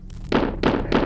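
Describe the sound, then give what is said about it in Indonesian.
Three heavy, evenly spaced thuds of someone pounding on a door, loud, each blow landing with a dull, booming impact. “Itu ibu. Buka pintunya.”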